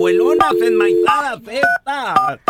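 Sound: telephone dialing a number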